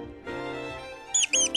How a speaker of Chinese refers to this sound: 这时，突然传来叽叽的惨烈叫声，原来是一只山老鼠被夹住了，眼泪汪汪的求救呢。